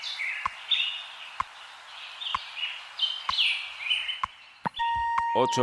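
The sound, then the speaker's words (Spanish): A dense chorus of small birds chirping and warbling continuously, played by Radio Hora to mark the official sunrise in Madrid, with regular soft ticking clicks about once a second, ending in a bright electronic chime-like tone. “Y a esta hora amanece oficialmente en Madrid. ¿eh? Eso nos lo indican nuestros pajaritos, los pajaritos de Radio Hora.”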